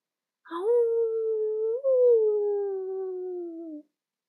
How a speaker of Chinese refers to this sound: 从森林里传来了一阵一阵的狼嚎。一开始的时候，声音还很轻，羊儿们还以为是晚风吹过树梢的声音。但是那些年纪最大的羊儿们，他们的警觉性本来就很好，夜里睡得又不深，所以一竖起耳朵就清清楚楚的听到了狼的嚎叫。